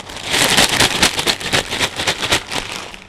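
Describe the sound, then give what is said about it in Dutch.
Crinkly rustling of a bag of hat-shaped corn chips being handled, a dense, steady stream of crackles and rustles with short bursts of louder crinkling, no voices. “Maar het zijn van, van die chippies.”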